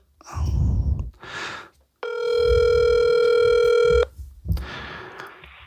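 A steady electronic ringback tone hums for about two seconds, a clean sustained buzzy pitch with stacked harmonics, bracketed by brief rustling and breathy noises before and after.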